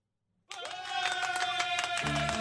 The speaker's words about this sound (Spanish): Espérate, cállate tú también, los aplausos.